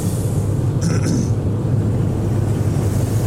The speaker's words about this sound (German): Ich höre dich gerade sehr schlecht. Ja. Ich dich auch. Weil der Zug nimmt gerade das gesamte Soundspektrum dieser Telefonverbindung an. Ja.